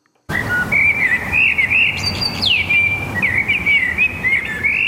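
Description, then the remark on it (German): An orange-breasted whinchat or a red-brown red-backed shrike sings a continuous run of varied scratchy warbles and high chirps, over a steady outdoor background rumble, with no one talking. “Das Braunkehlchen mit der orangen Brust oder der rotbraune Neuntöter, beide Vogelarten gelten in Graubünden als gefördert.”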